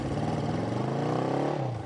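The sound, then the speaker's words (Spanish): A motorcycle taxi (mototaxi) engine, a taxi used to carry people around a town, runs steadily with a low, throbbing idle, its pitch rising slightly as it revs before easing off near the end; no voices are heard. “Ahora trabajo todo el día en el mototaxi para llevar dinero a la casa”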